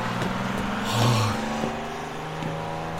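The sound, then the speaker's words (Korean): A bus's engine rumbles and swells as it pulls away from a bus stop, its deep drone rising briefly in pitch and loudness before settling into a steady hum, with no voices. “정선아를 떨치듯 남겨두고 버스 정류장에 도착한 마윤수는 눈앞에서 막 떠나는 버스를 우두커니 바라보아야 했다.”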